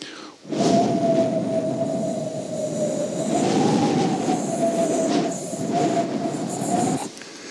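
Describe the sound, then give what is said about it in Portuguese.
A steady, high whistle of wind squeezing through a slightly open window rides over a rushing, breathy hiss, wavering gently in pitch for several seconds before cutting off. “Sabe quando você deixa a janela entreaberta? Aquele cício, aquele barulho.”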